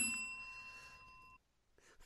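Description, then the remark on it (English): A single bright bell rung during a game of Never Have I Ever, its clear metallic tone sustaining for over a second before cutting off abruptly, followed by a short quiet stretch and a faint rustle. “Do I not ring the bell? Yeah, ring that bell.”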